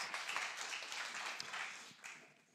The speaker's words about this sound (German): Großen Applaus.